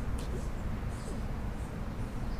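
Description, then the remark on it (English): Birds chirp in short, high bursts scattered across the moment, fairly faint against a steady low rumble of background noise, with no one speaking. “these birds are trying to get their little spot”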